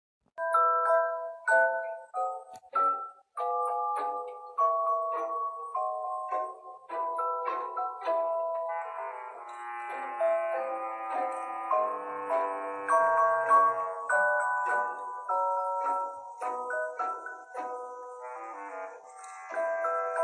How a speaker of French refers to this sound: le samedi tous se retrouvent dans la chambre d'ursula la fillette glisse un disque dans son lecteur et une mélodie féerique envahit la pièce